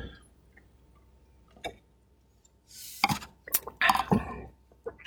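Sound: glasses clinking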